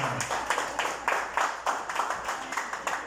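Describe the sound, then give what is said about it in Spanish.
A church audience applauds the pastor's wife steadily, many hands clapping in a dense, bright, crackling wash with recurring swells of louder claps throughout. “Démosle un aplauso a la pastora.”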